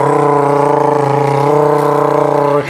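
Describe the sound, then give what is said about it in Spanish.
A voice imitates a floor polishing machine polishing a basketball court floor, with a steady, buzzing motor-like drone held for a few seconds, loud, with a slight wavering before it cuts off. “Escuchándolo, no, puliendo, puliendo, el piso, puliendo el piso de la, de la cancha de básquet”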